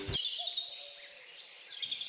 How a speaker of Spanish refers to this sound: el piar de los pájaros dándome los buenos días. He decidido madrugar para entrenar y aunque sienta que muchos otros están durmiendo mientras yo sumo kilómetros, esa música que regalan los pájaros me hace sentir que no estoy sola.